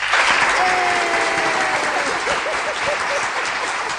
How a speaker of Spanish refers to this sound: Tenemos aplausos, Aplausos, eh, ay, espere, no me acuerdo cuál era. Espere, el uno. Eh, ahí.